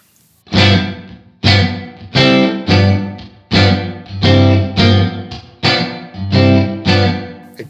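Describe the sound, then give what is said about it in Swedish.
An electric guitar played through a reverb pedal strums full chords in a steady rhythm, about eight loud strokes, each ringing out with a washy reverb tail into the next. No one speaks. “Jag är inte så himla mycket för att ha mycket bas i efterklang.”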